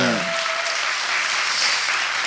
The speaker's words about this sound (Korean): 그, 네 박수 한번 주세요. 아, 일단 박수 한번 주세요.